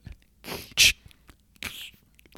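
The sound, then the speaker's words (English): A voice imitates a can being cracked open: a short breathy lead-in, a sharp loud pop, then a brief hissing fizz, with no talking. “That was pretty good. Ooh. They got the little fizz.”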